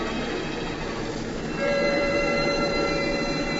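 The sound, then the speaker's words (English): A moving freight train rumbles and clatters steadily, with no voices; partway through the noise swells slightly and a sustained high-pitched whine rides over the roar. “Eight, nine, ten times I leaped across the gaping space between the cars, each time gaining more courage.”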